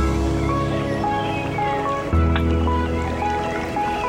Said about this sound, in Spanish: Bueno, pues quizás habría que cambiar eh, este jingle, ¿no? Y este pisador para decir invitado, ¿no? Invitados del día.